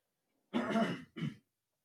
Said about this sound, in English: Sorry, guys, I am still trying to get over this this mess in my throat. I'm clearing my throat. I'm not trying to sound unprofessional, but my apologies.